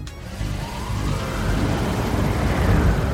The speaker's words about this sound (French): Le véhicule partit en trombe emmenant à son bord celui que la caméléa recherchait.